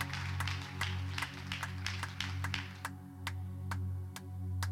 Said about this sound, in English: Let's clap our hands one more time unto the Lord.